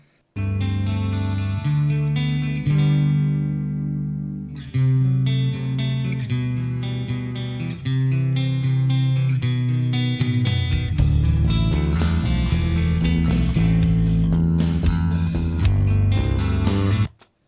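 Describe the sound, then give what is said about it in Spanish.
Playback of a full band mix plays steadily, with a prominent bass guitar line underneath sustained chords; the drums grow busier partway through and the music stops abruptly at the end. “Sí, güey, el bajo quiere, quiere que se escuche.”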